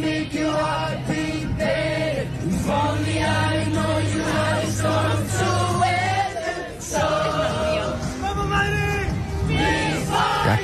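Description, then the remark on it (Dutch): Hundreds of people gathered in a circle on the square in front of a stadium around a karaoke set with speakers and a microphone sing together outdoors, a loud, continuous wash of many voices holding sustained melodic lines, with occasional shouts rising above the chorus. “Die hebben grote sing-along gehouden met de grootste hits”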